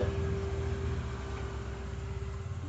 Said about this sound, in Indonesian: Aduh, ini motor